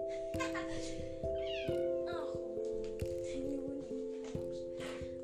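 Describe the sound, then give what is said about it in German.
A cat meows repeatedly in drawn-out, wavering cries that rise and fall over a steady low hum, with no talking. “Ich hole mal schnell meine Katze zu mir.”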